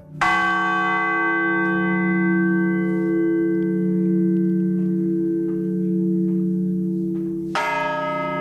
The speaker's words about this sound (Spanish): El repique de campanas puede servir para avisar a la población de catástrofes naturales como incendios e inundaciones, del comienzo de actividades lúdicas, del anuncio de decretos y noticias. Las campanas no suenan igual en todos los sitios.